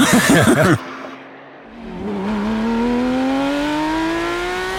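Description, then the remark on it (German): A brief burst of laughter, then the engine of a Porsche GT sports car revs up, its strong droning tone climbing steadily in pitch and holding loud to the end. “Es geht dabei um Motorensounds und zwar um die Sounds berühmter Porsche GT-Fahrzeuge.”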